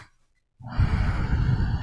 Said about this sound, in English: If I turn the fan on high,